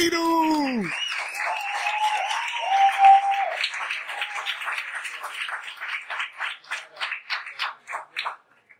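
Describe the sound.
Steady crowd applause breaks out right after a voice finishes speaking, with a high whistle or cheer over it early on. The clapping is dense at first, then thins to scattered claps and fades out.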